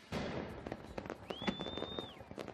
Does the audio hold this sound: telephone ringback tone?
no